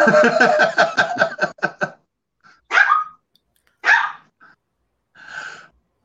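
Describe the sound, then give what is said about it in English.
A dog barks in a fast, loud volley of about ten yaps, then lets out three single barks spaced a second or so apart, with no one talking. “have to get that dog his own channel.”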